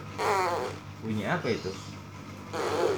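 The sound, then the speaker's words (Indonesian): A child blows two buzzy, sputtering mouth raspberries with pursed lips that mimic a fart, one at the start and one at the end, fairly loud, with an adult speaking briefly in between. “kayak suara itu kayak suara ngentut Wah suara ngentut masa itu bau dong mulutnya”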